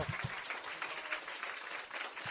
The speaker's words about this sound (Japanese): 大きな拍手でどうぞ。